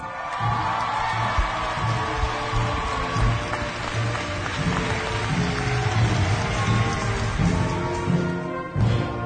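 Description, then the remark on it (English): A crowd in the stands cheers and applauds steadily, a dense, loud wash of clapping and shouts holding at an even level for the whole stretch, with a few whoops rising above it, as the Petersburg, Alaska high school class of 2023 is presented for the conferring of their diplomas. “And the crowd erupts in the stands.”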